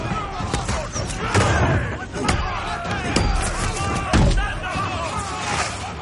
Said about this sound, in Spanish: Varios vikingos colocan un puente, cruzan el foso y avanzan cubiertos por una tabla. Atacan una puerta con lanzas y hachas.